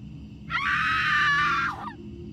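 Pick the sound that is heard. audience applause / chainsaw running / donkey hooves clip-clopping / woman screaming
woman screaming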